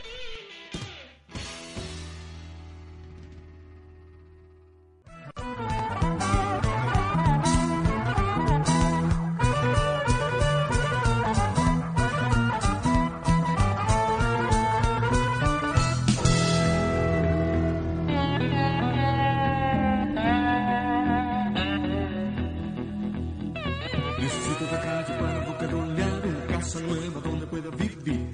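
A recorded song plays loudly and steadily, full band with dense harmonic layers, after a brief quieter lead-in of a few seconds before the main mix kicks in.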